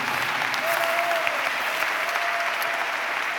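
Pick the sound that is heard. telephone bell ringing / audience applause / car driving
audience applause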